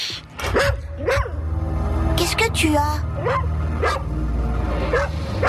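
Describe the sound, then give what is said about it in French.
A dog barks and yips repeatedly in short, excited bursts while a person speaks over it, with a steady low hum underneath. “Ce que ton chien essaie de te dire, petit, c'est juste que nous, les humains, on a le même pif que nos chiens, en fait.”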